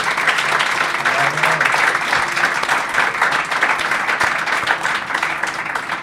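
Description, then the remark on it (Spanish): Sustained applause from an audience, a dense steady wash of many hands clapping at once that holds evenly for several seconds before easing off at the very end. “Bueno, no nos deis tantos aplausos que al final nos acostumbramos.”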